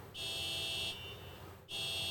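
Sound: car alarm going off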